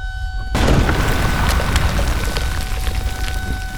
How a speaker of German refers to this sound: Ein Feuerball breitete sich im Zentrum des Backsteingebäudes aus. Flammenspeere fauchten in die mittägliche Sommerhitze. Durch die schiere Urgewalt dieser Explosion hob sich das Dach und gewaltige Metallplatten schleuderten glühend durch die Luft.